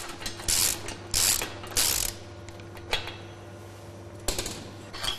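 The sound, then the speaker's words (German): A water-supply technician uses metal tools to open a compressor's cylinder head during a typical breakdown: three rapid ratcheting bursts, a few sharp clicks, then another burst, all over a steady low mechanical hum, with no talking. “öffnet den Zylinderkopf des Kompressors.”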